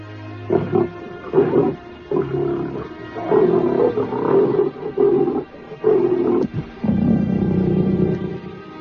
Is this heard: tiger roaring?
yes